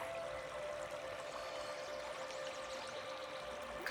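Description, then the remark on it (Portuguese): Steady, continuous rush of flowing water, like a stream or gentle pour, holding an even level throughout with no voices present. “Sinta a paz, sinta a cura que a energia desta água está trazendo para você.”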